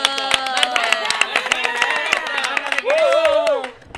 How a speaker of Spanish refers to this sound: ¡Aplauso!